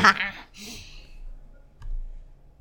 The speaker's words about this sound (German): Und jetzt würfelt sie nochmal mit einem Würfel. Wir haben eine 5.